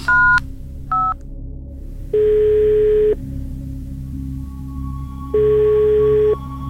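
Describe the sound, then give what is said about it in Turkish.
Two quick keypad beeps from a phone being dialed, followed by a ringback tone that sounds twice in long, evenly spaced pulses over a low steady hum. “Yeniden telefonumun tuşlarına bastım.”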